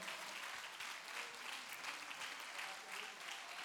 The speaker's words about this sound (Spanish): Si le vas a dar ese aplauso, dáselo fuerte al Señor.